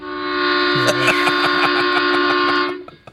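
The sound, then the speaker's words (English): A loud train horn blares in one long, steady chord-like blast lasting over two seconds, then cuts off abruptly. Faint clicking and rattling run underneath, with no voices. “Oh, they got trains.”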